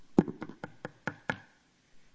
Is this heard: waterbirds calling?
no